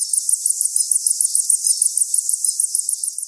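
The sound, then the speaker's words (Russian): Zebra finch heat calls, made by birds sitting on their eggs during hot weather: a rapid, evenly spaced series of short, thin, high-pitched notes, roughly six per second, repeating steadily and alone with no voices. “Еще пять лет назад Мариет подметила, что сидя на яйцах в период жары, птицы постоянно издают особые попевки. Они вот так звучат”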